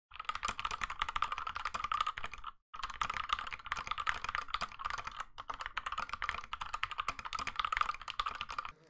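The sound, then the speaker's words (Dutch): Rapid, continuous clicking of a mechanical keyboard with loud clicky blue switches, keystrokes rattling in a dense stream with one brief pause partway through. No voices. “je hebt dan de blue switches. Die, die, eh, die, die, maken echt gewoon dat... ja. Eh, geluid.”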